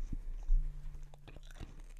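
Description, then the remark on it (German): Loud chewing with wet smacking and sharp crunches repeating irregularly for a couple of seconds, with no talking. “Digga, wie laut du schmatzt, Digga.”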